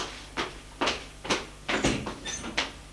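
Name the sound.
door closing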